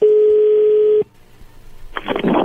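A telephone call is dialed to a man's wife: the line sounds a steady, mid-pitched ring tone for about a second, then goes quiet with faint line hiss before a rough burst of crackling noise comes through the receiver.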